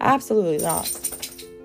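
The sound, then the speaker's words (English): Light metallic jingling of a dog's tags as it moves, a brief bright rattle sitting faintly beneath a woman speaking into the microphone. “Sorry, that was my dog.”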